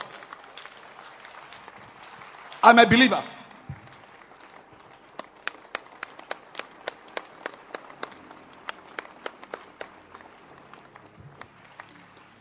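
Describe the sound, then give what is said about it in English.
Believers at a sermon clap together in a short, loud burst of applause to show that they believe, followed by scattered, steady individual hand claps that continue for several seconds, with a voice speaking briefly. “Clap your hands that you believe. Every believer, clap your hands.”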